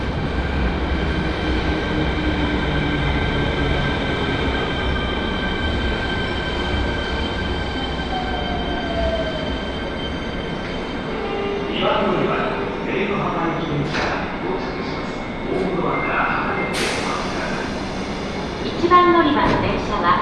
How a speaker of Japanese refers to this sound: 1番乗り場貝塚駅電車が到着しますホームドアから離れてお待ちくださいこの電車は博多福岡空港方面には参りませんご注意くださいこの電車は貝塚駅で西鉄貝塚線に接続しております